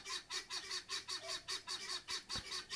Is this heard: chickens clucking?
yes